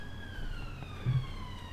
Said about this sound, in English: ambulance. it's going to be part we'll of the show. Well, that's that's Euston Square making itself known. We've yeah. had it in song, and now it's singing another song to us.